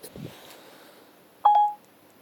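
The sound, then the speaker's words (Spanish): A single short electronic phone tone sounds as Siri starts a call home, a clear steady beep lasting about a third of a second, preceded by faint handling noise and quiet hiss. “Bueno, llama y yo lo aquí finalizo. Porque, bueno, no quiero que llame a casa, pero veis, llamando a casa y llama, vale.”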